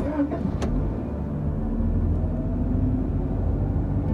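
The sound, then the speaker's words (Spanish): A car engine runs steadily with a deep, continuous rumble, fairly loud, with a couple of brief clicks near the start and no one speaking. “subimos al coche y me puse al volante.”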